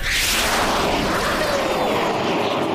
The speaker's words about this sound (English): The rocket blasted away.